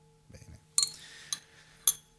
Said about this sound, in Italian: Una campana che non ha un bel suono. Meglio questa. Sì. Però è una campana o no? Anche se è un po' stonata.